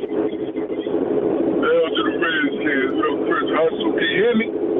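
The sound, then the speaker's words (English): A steady, loud rumble of road traffic and wind rushing through an open car window, with a man's voice talking over it through a narrow, muffled phone line; a radio listener calling in from D.C. “but there's a lot of noise behind you, so I don't know if you can roll up the window or something.”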